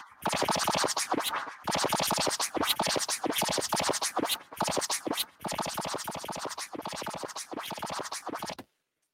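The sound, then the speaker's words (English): Beer poured into a glass: a loud, steady rush of fizzing and gurgling with a fast crackling texture and a few brief dips, lasting several seconds before stopping abruptly. Nobody speaks. “lovely pour. That's a good pour.”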